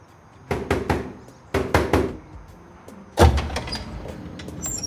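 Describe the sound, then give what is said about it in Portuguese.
A woman knocks two rounds of three firm knocks on the steel door of a Netflix DVD warehouse, with a short pause between them, followed by a loud metallic clank that rings briefly. No one speaks. “Ela tira um envelope vermelho da sua bolsa e vai até a porta de aço do armazém.”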